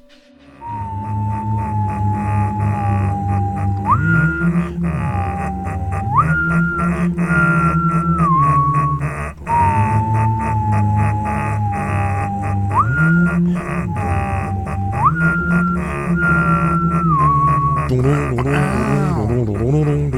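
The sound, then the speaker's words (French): Loud, continuous opening theme music of an animated series, with a repeating high melodic phrase that steps up in pitch, layered over heavy, droning low synth tones, building to a swirling flourish at the end. “Parce que si vous aimez cette série, il n'est pas possible que vous n'ayez jamais fredonné son générique.”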